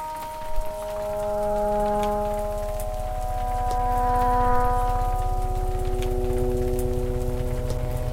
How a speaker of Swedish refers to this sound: Ska vi stänga av nu innan eh, eftersom det är så mycket regnljud? Ja, det gör vi.